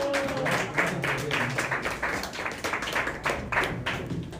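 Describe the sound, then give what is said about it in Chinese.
A crowd applauds steadily as six actors come on stage for an improv karaoke game, many hands clapping in a dense, continuous patter that stays fairly loud throughout with no voices rising above it. “好，首先呢，我们今天玩第一个即兴游戏叫做卡拉 OK，请六位演员上台，掌声鼓励。”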